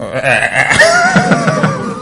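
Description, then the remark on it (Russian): A man standing in healing mud in the centre of Moscow imitates a frog's croak, producing a throaty, wavering vocal sound lasting about two seconds, with pulsing rough tones and a gurgling quality, fairly loud and alone. “квакнул, он посмеялся, ушел.”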